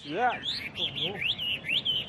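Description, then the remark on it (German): Caged Chinese hwamei songbirds sing loud, bright whistled phrases in quick repeated rising sweeps, with lower warbling notes woven between them, continuous throughout. “Gerade die chinesischen Spottdrosseln sind begabt darin, Töne aus ihrer Umgebung nachzuahmen.”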